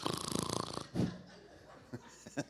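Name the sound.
voice imitating snoring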